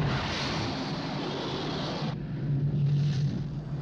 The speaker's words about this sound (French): Euh, oui, tu sais, je, je laisse le temps au petit son du décollage.